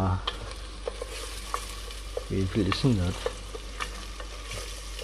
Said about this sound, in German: So, Zwiebeln sind angeschwitzt.